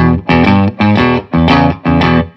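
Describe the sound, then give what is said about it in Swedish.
An overdriven electric guitar, played through an overdrive pedal, plays a short blues lick: four gritty, sustained bursts of notes in a steady, rhythmic pattern, loud with no talking. “Men om jag bara gör ett så här, jag bara spelar en blueshonka.”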